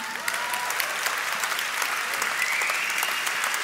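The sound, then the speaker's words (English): An audience claps steadily for a few seconds for the young people under 30 standing in the room, a dense crackle of many hands with no one speaking over it, holding at an even loudness throughout. “Let's first of all clap it up for all the youngsters in the room.”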